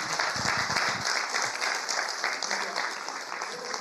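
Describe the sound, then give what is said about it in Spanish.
An audience applauds together as an offering of applause to the Lord, a dense, steady wash of clapping that holds at an even level for a few seconds, with a murmur of voices underneath. “Hermanos, denle una ofrenda de palmas al Señor.”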